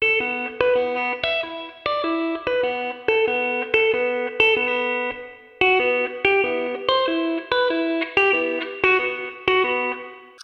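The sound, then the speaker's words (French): The open guitar strings of a song intro's riff, picked one after another on their own in a steady rhythm, each note ringing with a chorus-like, floating effects-laden tone, with a brief gap midway. No one speaks. “Donc ce que je vais faire, c'est que je vais vous jouer en fait les les cordes à vide qu'on entend vraiment seul pour que vous puissiez les identifier.”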